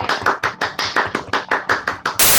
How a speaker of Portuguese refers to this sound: Uma salva de palmas para editor, vai! Aê!